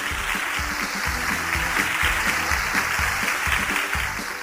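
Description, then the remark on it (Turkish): A crowd claps for a correct quiz answer, steadily for several seconds, a dense, continuous wash of applause that stays fairly loud and even throughout, with faint voices mixed underneath. “Evet doğru cevap mı? Evet. Alkışlayalım o zaman.”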